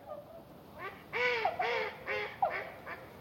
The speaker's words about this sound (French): Les appels doux et mélancoliques des cygnes résonnent. On dirait de lointaines trompettes.